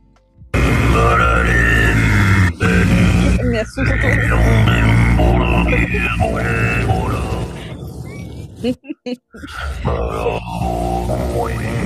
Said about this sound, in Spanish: Ah, mira, este meme, esta es la canción, mire, esta es la música de Duna, increíble música.